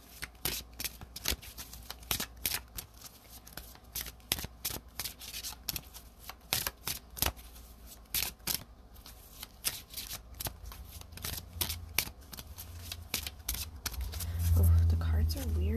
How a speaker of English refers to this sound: I feel like I feel like I should shuffle for the second one. So the first card came out.